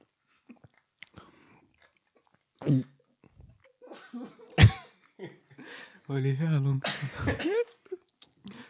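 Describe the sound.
A person coughs in a few sharp bursts, with some throat clearing, while voices talk around the coughing, after the fizz from a sip of Schweppes went down the throat.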